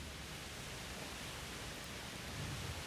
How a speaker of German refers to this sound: Okay, ihr Lieben. Es regnet.